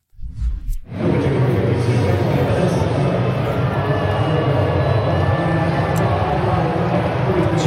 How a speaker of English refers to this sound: can hear one boo in particular. And then he trots out there, has a little conversation in shallow left field. Okay. It's still, it's sometimes a little hard to make out what the audience is saying here. But then it becomes a little clearer.